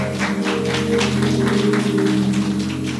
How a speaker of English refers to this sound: Can we give God a hand clap of praise for her?